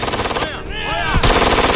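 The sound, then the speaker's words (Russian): A loud, rapid machine gun burst in a war film battle scene, cutting down three German soldiers, rattles in dense repeated pops, with sweeping whistling tones in the middle and more heavy firing resuming at the end, without talking. “Еще одна очередь подкашивает трех немецких солдат.”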